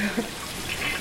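Water runs and splashes steadily against a hard surface as a woman rinses shower room walls, a continuous wash of hiss with no voices.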